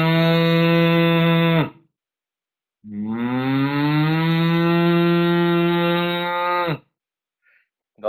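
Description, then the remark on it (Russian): As a voice exercise, a person hums an "u" twice with a closed mouth, lips shut and teeth apart. The long, loud, steady low tones imitate a cow or bull mooing. The first lasts under two seconds and the second about four, with a short pause between. “должно быть похоже на корову. Как будто корова мычит или бык.”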